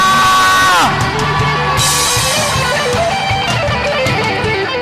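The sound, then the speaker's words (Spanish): A church audience erupts in loud, sustained shouting and whooping at a preacher's call, many voices yelling together in a rousing battle-cry roar for several seconds. “Den un grito de guerra.”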